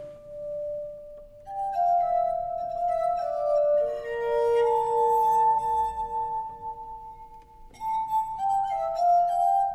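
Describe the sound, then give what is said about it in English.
A bell is struck several times, each clear, resonant tone ringing out and overlapping the last as it slowly fades, heard alone with no voices. “Arthur Zajonc just spoke of finding the aesthetic and moral qualities in the sound of a bell”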